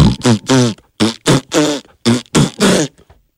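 A quick run of about seven short, buzzy fart sound effects from a button, where each press plays a random one, loud, each a separate blast with brief gaps between them and no talking.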